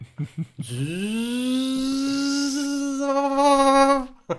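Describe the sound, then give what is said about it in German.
A washing machine spin cycle, recorded at home: after a few short knocks, a loud motor whine quickly rises in pitch and holds a steady buzzing hum, wobbling briefly near the end before cutting off with a click. “haben wir so eine Waschmaschine zu Hause aufgenommen genau. Und jetzt Schleudergang.”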